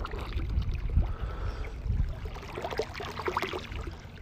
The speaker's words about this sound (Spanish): Es un agua y no es la de Tepoztlán. Es un agua que se escucha, pero no es la de otros episodios anteriores en la que en época de lluvias hay un río o una cascada cerca de donde vivo. Esta mañana es el agua de una alberca